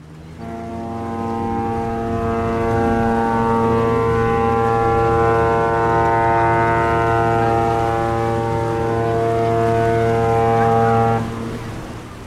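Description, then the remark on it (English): A cruise ship's horn, heard on the Lido deck during a voyage to England, sounds one long, loud, steady blast, a deep droning tone with rich harmonics that holds for about eleven seconds before cutting off. No voices are heard. “I'm sound? on the Lido deck. Oh, you're on a cruise right now?”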